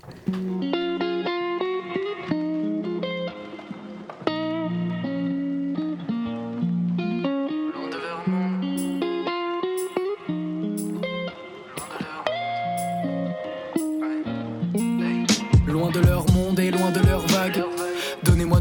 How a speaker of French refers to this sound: Place à la musique, nous revenons après cette immersion sonore. Je vous propose d'écouter … de ….